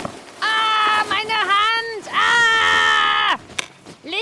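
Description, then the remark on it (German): Two loud, drawn-out, high-pitched screams in quick succession, each wavering and bending in pitch, harsh, followed by a short sharp cry; a human voice screaming at night, waking someone from sleep. “Doch eines Nachts, als ich trotz oder vielleicht gerade wegen des monotonen Summens eingeschlafen war, wurde ich von einem markerschütternden Schrei geweckt.”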